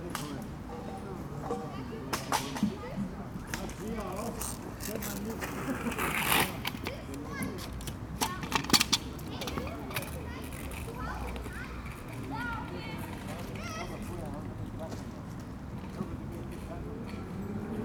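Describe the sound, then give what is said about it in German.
Children play and chatter across an open outdoor space in a park, their voices blending into a steady ambient murmur with occasional sharper shouts and knocks. “there are different communities in different places around the park. Like the, more children over here”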